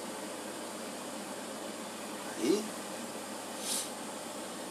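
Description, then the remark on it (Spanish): A washing machine runs at the start of a wash cycle as water enters it, with a steady, even whoosh of churning water and motor hum, while a voice briefly says a single word partway through. “Hace esa comunicación del agua, la lavadora, ese sonido característico.”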